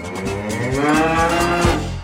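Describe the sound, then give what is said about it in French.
A cow lets out one long, loud moo that lasts about two seconds, deep and drawn out with rich harmonics, with no talking over it. “Alors vachement plaisir, c'est comme chevalement plaisir, mais avec une vache.”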